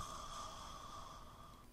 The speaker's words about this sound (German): Den dicken …. Herrn …? Ja, natürlich. Der schnarcht.